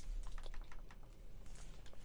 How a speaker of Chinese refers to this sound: 现在可能我会发出那种笔触的声音了，因为我现在画的东西笔触比较大，嘎嘎嘎嘎嘎嘎嘎的声音。